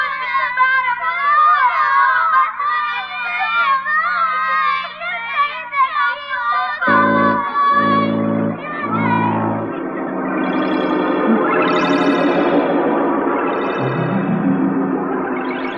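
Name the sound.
children crying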